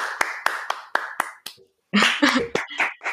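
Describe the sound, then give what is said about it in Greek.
A steady run of about six sharp hand claps, evenly spaced, then a short pause before a louder, busier burst of clapping. “Είναι χειροκρότημα θέλω από τα σπίτια σας, από τα κινητά σας, από τα αυτοκίνητά σας, από όπου ακούτε.”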